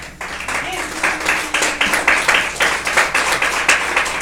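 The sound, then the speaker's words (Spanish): An audience claps together as an offering of applause to the Lord, in a steady, loud rhythm, the many hands blending into bright, rapid bursts that keep pace for several seconds without anyone speaking over it. “Denle ofrenda de palmas al Señor.”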